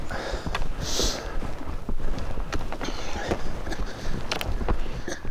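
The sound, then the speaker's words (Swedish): Footsteps crunch steadily through a thin crust of surface ice on a path, ground not wet beneath, each step a sharp cracking crackle in an uneven walking rhythm, with no voices over it. “Lät som det är lite överis men det verkar inte blött under.”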